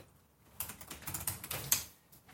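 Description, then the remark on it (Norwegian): Rapid typing on a computer keyboard, a dense flurry of light clicking keystrokes, starting after a brief quiet moment and continuing steadily to the end, with no voices. “Og da kan lytteren høre masse tasting og litt sånn jordbærspising.”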